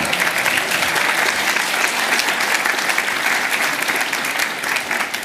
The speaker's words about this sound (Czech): Haleluja, kdybyste zatleskali, tak vám verím.